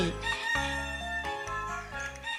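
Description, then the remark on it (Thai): A rooster crows loudly in several back-to-back bursts, each a strained, harmonically rich call with brief breaks between, alternating with the shrill ring of an alarm clock, and no voices. “สียงไก่โกงข้อขันสลับกับเสียงกรี๊ดของนาฬิกาปลุก”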